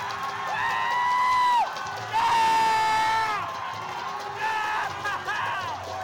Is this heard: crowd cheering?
yes